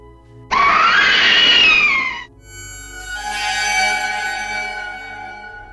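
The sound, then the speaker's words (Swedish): A girl's loud, piercing, heart-rending scream fills a dark tunnel at midnight, rising sharply and holding for about two seconds, then giving way to a lingering, reverberant tonal ring echoing through the tunnel. “Därefter fylls hela tunneln av ett hjärtskärande skrik från en flicka.”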